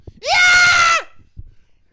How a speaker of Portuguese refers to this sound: Fala, dá um, dá um gritão aí.